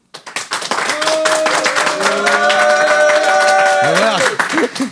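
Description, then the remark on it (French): An audience claps steadily throughout for a contestant in a joke competition, as an applause-meter vote, a dense wash of applause with cheering and whooping voices rising over it, including high sustained shouts near the end. “Alors pour m'aider, je vais demander un applaudimètre pour euh,”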